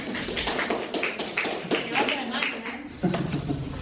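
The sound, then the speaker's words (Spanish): A burst of audience applause, many hands clapping in a dense, steady patter with some voices mixed in, holding at moderate loudness for a few seconds. “Muy bien, un aplauso”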